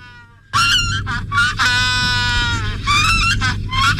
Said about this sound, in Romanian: E ca un măgar pe heliu. Da, asta a fost pinguinul. Înțeleg că și apără teritoriul când face asta.